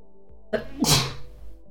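A single loud sneeze: a short sharp intake followed by an explosive, hissy burst that fades quickly, heard alone with no talking.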